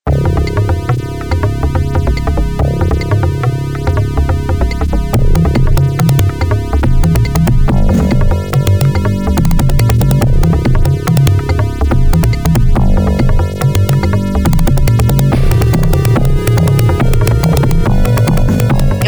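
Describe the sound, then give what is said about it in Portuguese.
Loud, driving instrumental theme music from a video game's opening screen, with heavy pounding drums and layered synth tones, playing continuously with no voices. “A tela de abertura do Mortal Kombat 3, aquele, aquela música com aqueles tambores”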